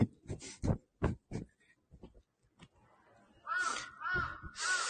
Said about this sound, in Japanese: カラス。カラス。